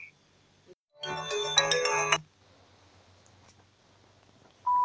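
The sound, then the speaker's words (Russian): A phone ringtone for an incoming call from a mobile phone plays a bright, tonal electronic melody for about a second, fairly loud, followed by quiet background noise and a brief beep at the end. “Все, я вам сейчас позвоню с мобильного, с мобильного.”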